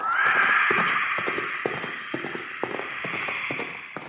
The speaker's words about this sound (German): Ein schrecklicher Schrei und das Getrampel von Hufen durchbrachen plötzlich die Stille der Nacht.